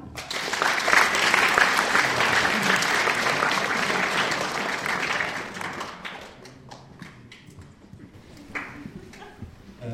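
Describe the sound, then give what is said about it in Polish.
A burst of audience applause, dense and loud for several seconds, then thinning into scattered individual claps that taper off toward the end. “Możesz siąść, brawa.”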